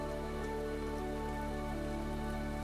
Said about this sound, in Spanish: mientras observas cómo la lluvia cae suavemente sobre el piso. Enfócate en el sonido de la lluvia, el sonido de las gotas que caen sobre las hojas. que caen sobre el suelo.